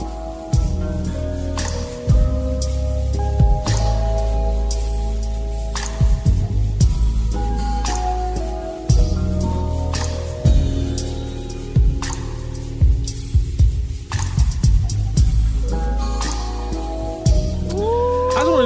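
A slowed-down, reverb-heavy R&B song plays steadily and loudly, with deep sustained bass, smeared echoing chords and soft percussive hits, and no one talking over it.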